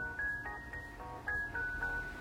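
A recorded song plays on its own, a bright sustained melody line gliding over steady backing tones at a moderate, even volume, with no one talking over it.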